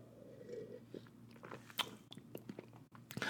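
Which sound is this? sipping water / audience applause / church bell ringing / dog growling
sipping water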